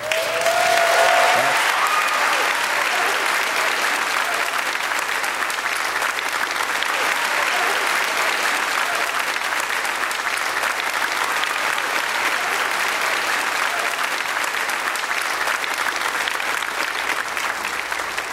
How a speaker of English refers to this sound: So I want to commend you and I want to applaud you. I think you ought to give a hand to your pastor, his wife, and his family.